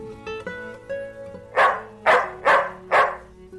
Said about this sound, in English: 小朋友听到了吗？是一只白色的狗在叫哦。